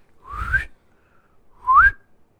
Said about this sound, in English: And he whistled three times.